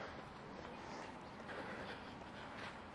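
Steady, dense city traffic in the middle of Abu Dhabi roars continuously, a broad wash of engine and tire noise at moderate loudness with no distinct individual vehicles standing out and no voices.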